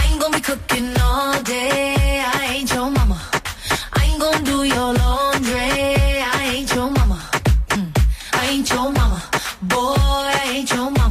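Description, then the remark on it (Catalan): A pop song plays loud and clear, with a punchy beat, bright synth chords and a melodic line running steadily throughout, no talking over it. “L'una és aquesta que sentim”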